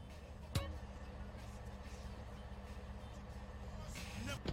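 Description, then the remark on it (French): A video game car engine, with the game's original, unremastered engine sounds, drones steadily at a low, even pitch throughout, with one brief sharp click near the start and a faint hiss toward the end. “Bon, ils ont pas mis, euh, ils ont pas remasterisé, rechanger les, changé pardon les, les bruits de moteur.”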